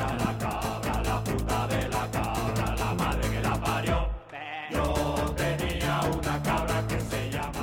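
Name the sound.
goat bleating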